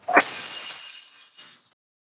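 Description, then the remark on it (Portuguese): A drinking glass shatters with a sharp crash, followed by a bright tinkling spray of shards that rings out and fades over about a second and a half, heard alone. “Isso foi um copo de vidro quebrando.”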